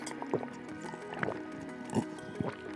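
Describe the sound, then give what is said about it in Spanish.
Water being poured into a glass, with a few gurgling glugs and splashes over a steady trickle and a faint rising fill tone; no one speaks. “En esta rutina recuerda incluir bañarte, dar gracias por lo que tienes, alimentarte de manera saludable, tomar agua,”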